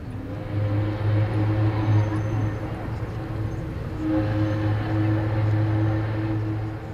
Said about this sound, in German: Es ist Samstagnachmittag. Gerade sind sie an den Landungsbrücken unterwegs, sitzen auf den Stufen, schauen auf die großen Schiffe und beobachten, wie Barkassen Touristen über die Elbe schippern. Hier am Hafen kommt Fernweh auf.